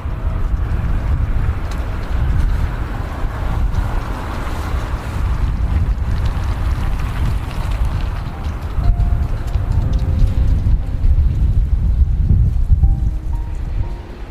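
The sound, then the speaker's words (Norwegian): Strong storm wind roars steadily and loudly, a heavy low rumble buffeting the microphone throughout, with faint tonal whistles and creaks surfacing near the end. No voices are heard. “Venninnene går med krum nakke for å stå imot stormen.”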